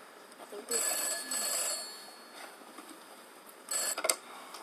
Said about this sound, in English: It's just a phone. Just a phone.